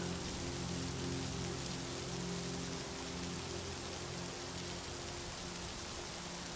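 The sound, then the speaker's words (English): Steady rain patters on a surface, a constant soft hiss of countless drops with a low background hum, continuous and even throughout with no voices. “Each tap from the raindrops clears your mind further, helping those already relaxed muscles to soften even more.”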